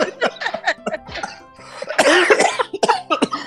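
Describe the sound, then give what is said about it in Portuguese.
A run of loud coughs, several short bursts early on followed by a longer, harsher coughing fit near the middle and a few more bursts after it. “Nossa senhora, quem que tá Mas com esse, tosse aí?”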